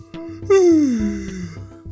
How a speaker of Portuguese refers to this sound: Cara, por que que eu fico bocejando? Tipo, eu tô de boa, tô aqui vivendo a minha vida normal. Ó, oh, tá vindo essa porra.